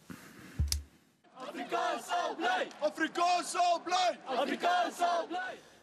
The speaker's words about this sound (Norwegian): En gruppe studenter roper slagord til støtte for morsmålet deres, afrikansk. De som demonstrerer, er hovedsakelig hvite sørafrikanere.